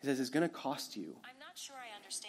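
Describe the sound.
A man speaks a short phrase, then the smooth, synthesized voice of the Siri voice assistant answers with a brief reply, clear.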